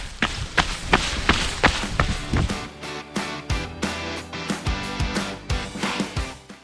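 Trekking poles clack against the ground of a mountain trail at 3 a.m. as a hiker pushes up the mountain, in a steady, uneven rhythm: sharp, fairly loud knocks roughly every half second, mixed with duller thuds of footsteps, and no talking.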